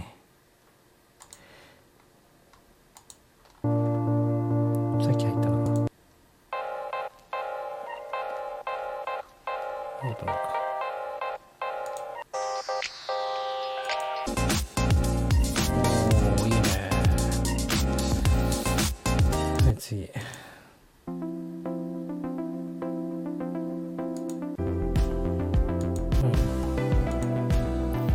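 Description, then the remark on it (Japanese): A preview of a mellow chill-out stock background music track, being auditioned as music for concentrating on work. It plays on its own, with soft ticking percussion and sustained tones that shift between sections, swelling into a fuller, brighter passage midway before settling back. “とりあえず今日はじゃあ、チルアウトからお気に入り保存して、そこからまた聞いて選んでいきましょう。”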